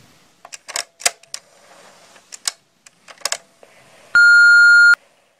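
A burst of irregular clicks and taps, like buttons being pressed or a phone being handled, then a single loud, steady voicemail beep lasting just under a second. No one speaks.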